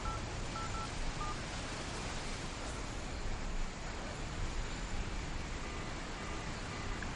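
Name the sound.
telephone keypad dialing tones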